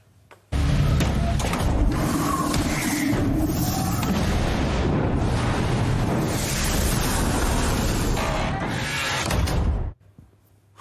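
A sustained, loud roaring rush of a giant flame drawing in air, surging abruptly and filling about nine seconds with a dense, windy whoosh as the suction blast slams open doors shut, before cutting off suddenly. No voices.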